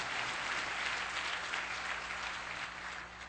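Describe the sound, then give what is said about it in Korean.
A church audience claps together in sustained, even applause offered to God, a dense wash of many hands at steady volume that begins to thin slightly near the end, with no talking over it. “이제부터 크고 비밀하며 그리고 새일을 이루신 하나님 앞에 새일을 이루실 하나님께 또한번 박수 드립시다.”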